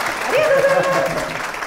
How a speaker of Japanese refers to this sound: もうね、一応こういう状況なので、本当にたくさんのお客様にお集まりいただいてるんですが、あの声が出せないので、拍手で。